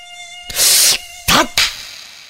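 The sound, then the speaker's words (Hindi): A thin, steady mosquito whine hums throughout late at night, broken by three loud, noisy bursts, one long and two short, with no voices present. “प्रियम की आंखों से नींद गायब हो चुकी थी इस मच्छर के कारण जो पिछले आधी घंटे से उसे परेशान कर रहा था”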